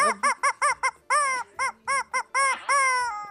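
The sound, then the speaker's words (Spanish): A hen clucks loudly in a quick run of about a dozen harsh, nasal calls, the last few stretched into longer squawks, with no voices. “Gallina Rolinga.”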